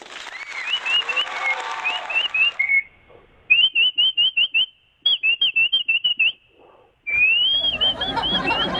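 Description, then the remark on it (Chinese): Someone whistles an imitation of winter birds chirping: quick warbling trills, then bursts of rapid, evenly spaced high chirps in two runs, with clapping-like noise at the start and end. “啊，就是吹小鸟叫了嘛，小这冬天的鸟叫嘛， 什么？”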